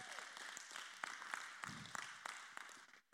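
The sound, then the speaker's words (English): A crowd breaks into applause for a chief deputy's remark during his talk, a dense steady patter of many hands clapping with a few sharper claps standing out, holding fairly even before trailing off at the end. “Yeah, you can clap on that one.”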